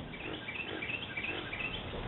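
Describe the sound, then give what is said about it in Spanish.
Birds sing in short, high chirps and trills over a steady, dense background wash, the calls thin and scattered rather than loud. “el canto de los pájaros”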